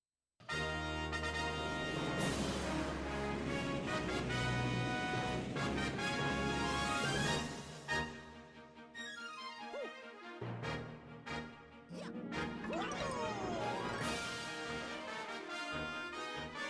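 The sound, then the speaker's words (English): Strings drive a loud, insistent repeated rhythmic figure in dense orchestral music, thinning briefly mid-way under a descending swoosh effect before the pulsing pattern surges back. “you can hear like the strings like hitting those dun dun which is cool and makes it like feel propulsive propulsive and and like has real energy to it”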